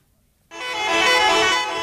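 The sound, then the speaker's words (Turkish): After a brief silence, a loud truck horn suddenly blares and holds as one steady, sustained blast, dominant, with no voices. Hundreds of trucks gather on the Fatih Sultan Mehmet Bridge in Istanbul, with truckers protesting the closure of excavation dump sites on the Anatolian side. “Yüzlerce kamyon Anadolu yakasındaki hafriyat döküm alanlarının kapatılmasını protesto için aynı anda köprüye geldi ve köprü bu yükü kaldırmakta zorlandı.”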